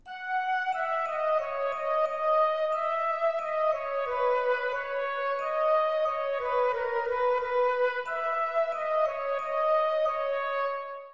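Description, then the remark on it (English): A bright melody played in unison by four instruments, including flute and marimba, moving through a flowing line of sustained notes, steady and fairly loud throughout with no voices. “So we have those four different instruments playing the exact same melody, and I think that kind of makes them all kind of mesh together.”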